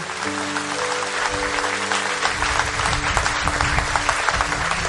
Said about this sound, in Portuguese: Aplauda mais uma vez o Senhor bem forte para ele.